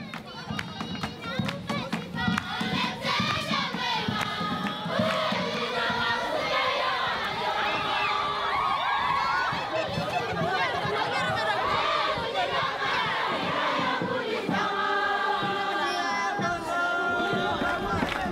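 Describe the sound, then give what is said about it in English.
A large group of people sings together loudly and continuously while dancing, with lively crowd energy and scattered tapping and clapping. “I want you to, to at least see and hear, kind of as best as I possibly can, describe to you what I mean when, when you see them and hear them singing and dancing.”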